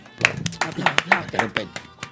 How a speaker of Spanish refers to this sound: un aplauso. Aplaudo, aplaudo, coño